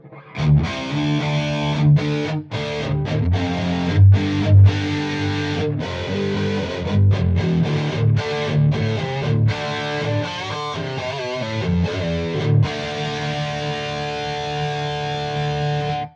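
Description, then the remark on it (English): A heavily distorted electric guitar, played through a Dracarys pedal with a Mimiq doubler effect, plays loud rhythmic chugging riffs with short stops and palm-muted bursts, ending on a sustained ringing chord. “Let's run the Dracarys without it. with the Mimiq.”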